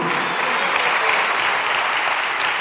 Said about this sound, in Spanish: ¿Cuántos dan un aplauso a Dios por eso, amado hermano? A su nombre sea la gloria.